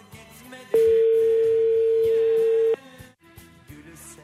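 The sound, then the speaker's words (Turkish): A single steady telephone ringback tone sounds for about two seconds, loud and continuous, over faint background noise, with no talking during the tone. “Şuradan alayım dur açsın da telefonu. Açmıyormuş.”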